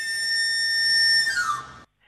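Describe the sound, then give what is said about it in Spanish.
A knife grinder's whistle sounds clear: a long, steady high note held for over a second, then sliding quickly downward before cutting off. No one speaks. “Y el grito, aparte de silbar, a ver cómo era el silbido, que nos lo reproduzcan.”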